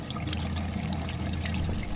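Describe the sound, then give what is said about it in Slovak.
Spa water in Trenčianske Teplice trickles and splashes steadily as it is drunk, a continuous bubbling flow over a low rumble, with no voices. “A chutí mi, chutí mi tu voda v trenčenských tepliciach. Pijeme vodu, aj plávame.”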